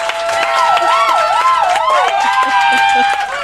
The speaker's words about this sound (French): Et là-dessus, ben, applaudissez notre invité, mesdames et messieurs